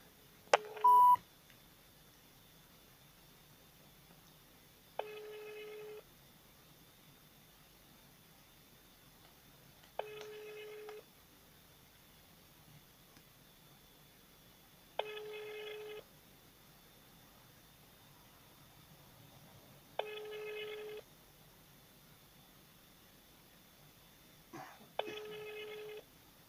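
A quick burst of telephone dialing tones as the Vesti Altai radio phone line is called, then the line rings: five steady ringback tones, each about a second long, spaced evenly every five seconds over a faint hiss.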